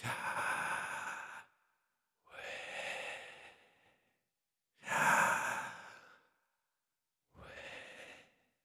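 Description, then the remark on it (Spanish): Four slow, deliberate breaths alternate between inhale and exhale, each a broad airy rush lasting about a second with short silences between. Clear, with no talking. “Como una respiración, como el momento en que tú cobraste vida, como ese inhalar y exhalar.”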